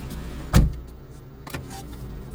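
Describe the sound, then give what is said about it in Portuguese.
A driver's unlocked car door is opened and slammed shut as rain eases: a heavy thud of the door slamming, followed a second later by a lighter clunk, over a steady low engine or road hum with no talking. “Eu tive que abrir a porta e bater a porta.”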